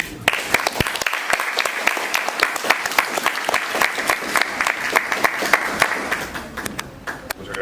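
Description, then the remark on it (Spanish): An audience at a book presentation breaks into applause, many hands clapping in a dense, steady patter that holds for several seconds at moderate loudness before thinning slightly near the end. “Eh, doy un fuerte aplauso.”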